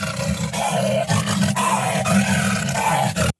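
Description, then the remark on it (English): A lion roars loudly and continuously for a few seconds, a deep, rumbling, sustained bellow with rough growling texture, unaccompanied by any talking. “It's like so I don't really worry about like like uh, the other day I had uh, this lion sound.”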